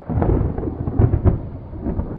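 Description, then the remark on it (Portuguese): Deep, rolling thunder rumbles loudly throughout, with a couple of sharper cracks around the middle, like a heavy storm overhead. No voices are heard. “Então, assim, era uma tarde chuvosa. os ânimos estavam exaltados e relâmpagos caíam dos céus”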